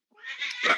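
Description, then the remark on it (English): A single drawn-out meow from a female cat in the background, rising, heard alone with no talking, lasting under a second. “That's the cat in the background.”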